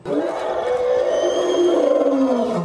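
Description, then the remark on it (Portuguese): A lion lets out a single deep, sustained roar lasting nearly three seconds, loud, with a rough rumbling tone that slowly slides lower toward the end. “E essa modificação faz com que eles consigam produzir aquele barulho bem característico deles, o rugido, que é tão alto, mas tão alto, que pode ser ouvido até 8 quilômetros de distância.”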